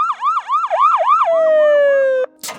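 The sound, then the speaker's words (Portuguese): A loud fire truck siren wails in quick rising-and-falling sweeps as fire vehicles arrive at a hospital, then holds a long, slowly dropping tone before cutting off abruptly, followed by a brief hissing burst. “Poucos minutos depois, as viaturas chegaram ao hospital.”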